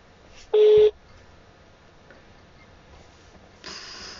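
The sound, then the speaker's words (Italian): A single loud telephone tone sounds briefly near the start of an unanswered phone call, followed by a quiet, hissy line as the voicemail picks up and a faint burst of static at the end, with no one speaking. “risponde la segreteria telefonica”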